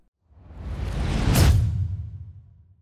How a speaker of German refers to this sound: Und nach dieser tollen, nach diesem tollen Übergang, den ihr gerade gehört habt